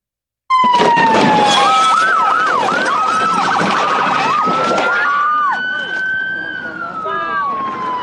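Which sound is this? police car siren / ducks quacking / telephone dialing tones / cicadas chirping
police car siren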